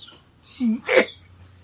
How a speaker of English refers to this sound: Sometimes my laughing is that a cough or a sneeze? That was a, a laughing and coughing because I'm getting over a cold and I have like post nasal drip and laughing so hard caused me to cough.